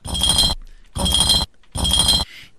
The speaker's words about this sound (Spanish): Es una botella, cuando le has vuelto una botella de vidrio sobre el eh, cemento, ¿no?